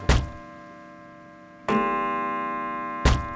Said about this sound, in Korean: 그날 밤이 오싹한 종소리가 또 들리는 거예요.